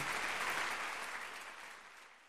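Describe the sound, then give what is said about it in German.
A short burst of audience applause, dense and steady clapping that gradually fades over a couple of seconds, with no voices over it. “Ja, ein bisschen Applaus.”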